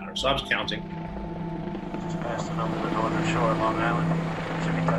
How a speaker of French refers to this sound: Deux hélicoptères en route donc pour la maison où se cache probablement, mais rien n'est encore sûr, Oussama Ben Laden. C'est la nuit. À l'atterrissage dans ce quartier d'Abotabad, l'un des engins s'écrase sans faire de victime